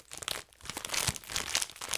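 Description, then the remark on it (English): Loud crinkling and crunching of a bag of Dots home style pretzels being crumpled, with irregular bursts of crackle and the muffled crunch of pretzels breaking inside, no voices. “I'm crumpling them up, and then I'll probably eat the dust later.”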